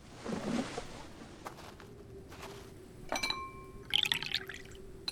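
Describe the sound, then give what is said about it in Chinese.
Hot tea splashes and trickles into a cup in short bursts, with a bright ringing clink of porcelain midway and a faint steady hiss beneath. “先喝杯热茶，暖暖身子。”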